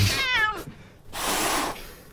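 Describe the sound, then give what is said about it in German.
A cat lets out a drawn-out, wavering meow, followed by a breathy, hissing exhale; no one speaks, and the animal sounds fairly loud. “Diese Töne kannst du mit dem Gesichtsausdruck dieser Katze nicht konservieren.”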